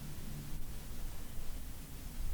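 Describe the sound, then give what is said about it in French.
A soft, steady wash of running water from a river some distance off, an even hiss with no breaks or distinct splashes, faint and continuous throughout. “J'entends l'eau de la rivière plus loin devant moi.”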